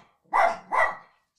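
Two quick dog barks in close succession, fairly loud, with a bright, sharp tone and no other sounds around them.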